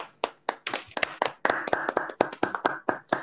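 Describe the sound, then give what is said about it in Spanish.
A short burst of applause: sharp, crisp hand claps in a quick, slightly uneven rhythm, about fifteen in three seconds, fairly steady in loudness, with no talking. “Aplauso para mierdas.”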